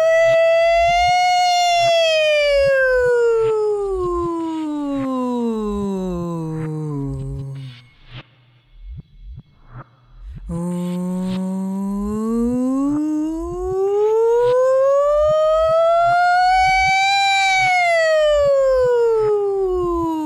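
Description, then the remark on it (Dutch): A single voice does a siren vocal exercise to build range, gliding slowly from high pitch down to low, pausing briefly, then sweeping back up high, with a soft steady beat pulsing underneath. “Je kan je sirene dus opbouwen door telkens hoger en hoger en lager en lager te gaan.”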